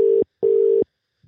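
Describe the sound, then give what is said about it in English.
A telephone tone from an outgoing call: two steady, even electronic buzzes in quick succession, separated by a short gap, clear and fairly loud with no voices. “there was two Jimmys in the phone, so hopefully the right one I've dialed”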